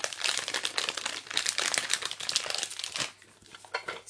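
Continuous crinkling and crackling of a plastic pack as fluffy slime is pressed onto it, with dense irregular rustles that briefly ease off before resuming.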